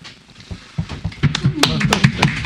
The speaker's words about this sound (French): Alors là, on frappe sur la table. on applaudit.